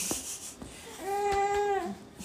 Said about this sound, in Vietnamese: các bạn có thể nghe thấy tiếng em rất là đang rất là à, thưởng thức thưởng thức bữa sáng của mình rất là hài lòng với bữa sáng của mình hôm nay